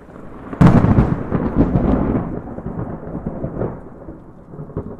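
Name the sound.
thunder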